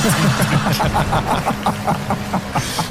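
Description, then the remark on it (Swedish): A steady, fairly loud rumble of motorway traffic, with a low engine drone and a regular ticking pulse running through it, holding level for the whole stretch without clear individual pass-bys. “Alldeles snart hör ni hästen och sen kom eh, motorvågen.”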